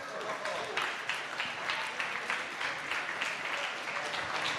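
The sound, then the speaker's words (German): A crowd at a bingo game claps steadily for a winner for several seconds, a dense patter of many hands with faint voices mixed in, holding an even loudness throughout. “Da, ein Applaus.”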